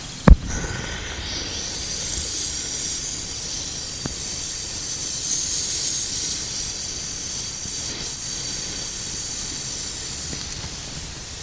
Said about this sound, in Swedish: Ja, så låter det när det kokar. Middagsmaten. Det är frikadeller och kålsoppa som jag har på värmen.